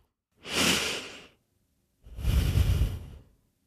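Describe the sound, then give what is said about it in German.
Two long, heavy breaths through the nose as a breathing exercise, a hissing inhale followed by a deeper, rumbling exhale, with a brief pause between them and no talking. “Ich atme durch die Nase.”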